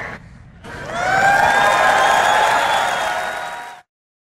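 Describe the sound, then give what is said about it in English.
A crowd erupts in loud cheering and applause, with whoops and sustained high-pitched yells rising quickly and holding steady for a few seconds before cutting off abruptly. “I don't know what's scarier, the fact that that call took place or the fact that everyone's cheering after it took place.”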